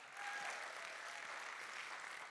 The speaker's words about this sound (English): I'm really, really proud of our pastors. Give them a big old clap. Come on, give them a big old clap.